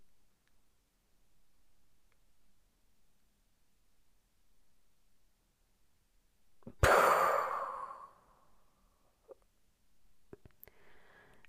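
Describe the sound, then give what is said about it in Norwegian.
After several seconds of near silence, one deep, breathy exhale rushes out during a breathing exercise, then slowly fades away, followed by quiet, faint rustling. “Pust godt inn, og så løp pusten.”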